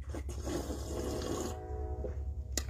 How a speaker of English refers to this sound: Let me get another sip before I get started.